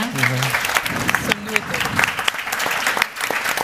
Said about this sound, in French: Donc, je vous remercie profondément toutes les deux. Pour, ça, vaut une main d'applaudissement.